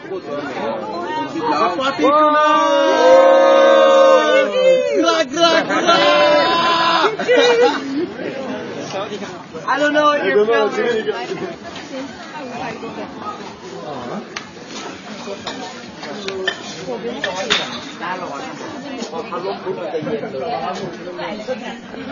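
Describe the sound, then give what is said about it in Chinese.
A noisy crowd on the bar street in Pai, near Chiang Mai, Thailand: a group of voices shouts greetings loudly at the camera in the first few seconds, then a steady babble of many overlapping conversations in many languages carries on throughout. “现在将听的这段声音就是在拜县的酒吧街录制的，你听听，大家多高兴啊！”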